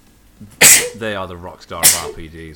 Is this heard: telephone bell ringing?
no